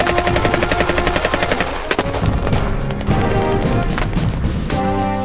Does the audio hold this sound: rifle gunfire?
yes